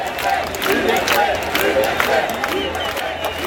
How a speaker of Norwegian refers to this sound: Frihet, stopp diktaturet, menneskerettigheter var noen av parolene da 114 000 mennesker demonstrerte i Paris, Marseille, Avignon og en rekke andre franske byer nå i sommer.